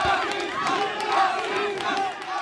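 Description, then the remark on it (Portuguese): A dense crowd of protesters in Portugal chants and shouts together against a political party leader, many voices overlapping in a loud, sustained roar with rising and falling yells, no single voice standing out. “Se de um lado se ouve chega, do outro ouvem-se outras palavras.”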